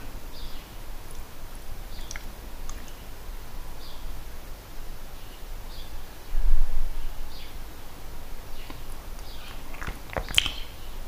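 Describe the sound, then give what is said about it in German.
Faint birds chirp intermittently over a steady hiss of background noise, with a few sharper clicks or rustles near the end; no one speaks. “Und im Hintergrund die Vögel.”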